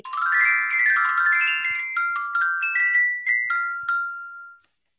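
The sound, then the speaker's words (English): A bright, chiming electronic jingle plays a quick melodic run of tinkling tones, then a few separate bell-like notes ring out clearly before it cuts off. No voices are present. “Little known fact, that's actually the ringtone uh, that you hear whenever you enter the Smiley House”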